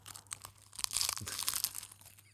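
Dense, crackly crunching and crinkling, like someone chewing crisp food, with irregular bursts of bright noise over about two seconds at a moderate level, no talking.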